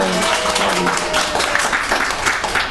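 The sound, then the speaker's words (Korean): An audience at a church gathering claps steadily after a worship leader's singing, many hands producing a dense, even wash of crackling applause at a fairly loud level, sustained without a break for the whole stretch. “오늘 우리가 아, 박수 한번 칠까요?”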